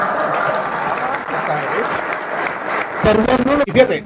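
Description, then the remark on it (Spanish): In a played recording, an audience applauds Paco Ignacio Taibo in a steady, dense patter of clapping for about three seconds, and then a man's voice starts speaking loudly over the fading applause. “todavía le aplauden, hijos de su pinche madre, tengan dignidad, pendejos.”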